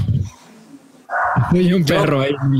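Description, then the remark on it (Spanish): A neighbor's dog barks in a fairly loud burst after a quiet opening, the barks running together for over a second in a tonal, slightly whining string. “Ah, es el perro del vecino.”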